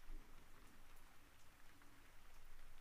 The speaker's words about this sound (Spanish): Y nos acompaña la lluvia.